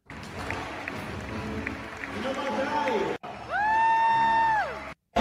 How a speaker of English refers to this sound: Und jetzt ein Riesenapplaus für uns Jungs mit der Nummer 0, Nemanja Škekić.